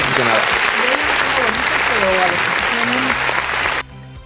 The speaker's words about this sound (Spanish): ¿Aplausos? Aplausos. Bueno, aplausos